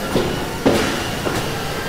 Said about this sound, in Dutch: De deur staat open. Ja, nou ja, even duwen. Even duwen.